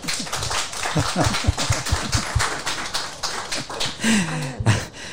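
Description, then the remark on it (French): A crowd claps steadily for about five seconds, a dense, crackling patter of many hands, with bits of laughter and a rising vocal whoop mixed in, applauding the 1558th edition of a show. “1558e édition, mesdames, messieurs, applaudissements.”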